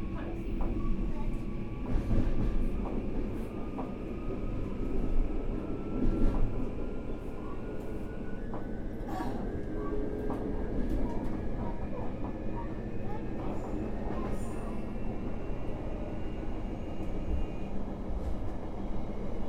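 A JR Kyushu 821 series electric train running between Futsukaichi and Hakata, Japan, heard from inside the car: a steady, loud rumble of wheels on track with a thin motor whine that slowly rises in pitch, plus occasional clicks and knocks.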